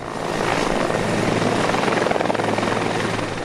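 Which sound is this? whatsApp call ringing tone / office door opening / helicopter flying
helicopter flying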